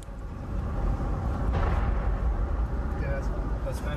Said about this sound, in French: et très vite des bruits de tir.